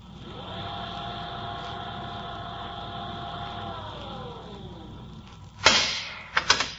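A steady mechanical whir hums for several seconds and then winds down in pitch, followed by a sharp burst of hiss and a couple of metallic clunks as a heavy airlock door leading to space, opened by pressing a button, swings open.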